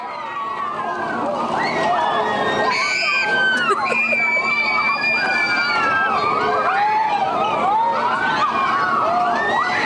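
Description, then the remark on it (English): A dense crowd at an amusement park shouting and screaming over one another, with shrill high-pitched shrieks rising and falling continuously at a steady loud level. “Like here's here's an example of like like that's an amusement park.”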